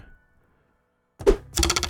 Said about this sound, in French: Alors, petit, euh, petit son, pour ceux qui ne savent pas, ce, petit son vous indique que si vous cliquez sur la petite flèche, la petite épingle rouge, vous allez vous ramasser sur un petit site web, puis vous allez voir le lien partagé